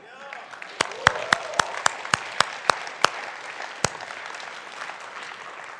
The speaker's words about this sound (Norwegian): Skal vi gjøre oss sjøl en skikkelig klapp?